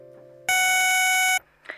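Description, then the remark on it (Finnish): A cassette answering machine beep: a single loud, steady electronic tone lasting about a second, sounding on its own against a quiet background with a faint click afterward. “Puhelin vastaaja.”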